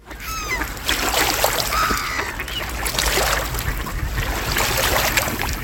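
A busy flock of ducks and geese calls over one another, with quacks and honks overlapping constantly against a steady wash of water and open-air noise.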